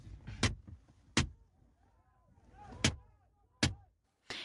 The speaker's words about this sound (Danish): En kampklædt politimand begynder at slå på bilens ruder med hvad der ligner et metalrør. Inde i bilen sidder Ugandas oppositionsleder, den mega populære sanger ….